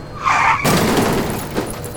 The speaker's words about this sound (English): It pops and the buggy goes skittering off the road and crashes into the side of a building.